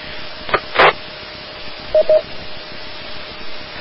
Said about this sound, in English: Uh, yeah, I believe one way you could probably do that is uh, using the DTMF uh, tones on uh, on your mic if they're still functioning.